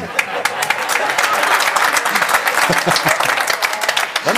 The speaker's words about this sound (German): In, in deinem Rücken jubeln sie.